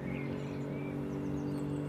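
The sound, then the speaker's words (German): A fast motorboat on the Starnberger See gives off a steady, low humming engine drone that holds evenly throughout, with faint bird chirps flickering high above it. “da hinten ist noch ein Boot schnell unterwegs.”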